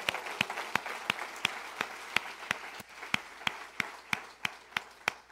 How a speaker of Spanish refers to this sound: Le damos otro aplauso al Señor.